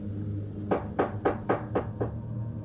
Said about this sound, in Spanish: Tiempo después me estaba preparando para dormir cuando escuché que tocaban a mi puerta, a la mitad de la noche. Me levanté de la cama y cuando la abrí no había nadie.